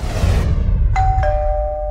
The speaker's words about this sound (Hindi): इससे पहले कि गौरव पुलिस के पास पहुंचता और अपने साथ हुए फ्रॉड की कंप्लेंट करता उसके घर की घंटी बजी